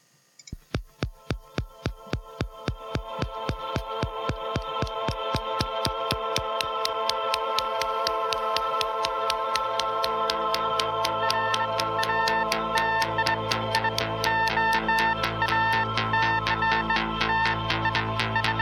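Electronic synth-pop music opens with Geiger-counter clicking pulses that quickly speed up, then settle into steady ticking over sustained synth tones and a low throbbing bass. No voices.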